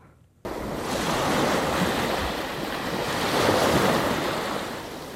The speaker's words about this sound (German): Jeden Tag nagen Wellen und Wind an den Küsten der Welt. Und mit jedem Zentimeter Meeresspiegelanstieg geht dabei mehr Land verloren. Das ist überall so.